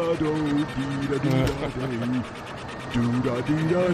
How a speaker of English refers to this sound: I was enjoying using my newfangled floor polisher, and I waltzed right in on you.